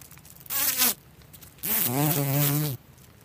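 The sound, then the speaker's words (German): A fly buzzes in two passes, a short drone followed by a longer one, its pitch wavering as it circles, with a brief quiet gap between. “Beginnen wir aber mit einer, die selbst im städtischen Raum immer wieder um uns herumschwirrt.”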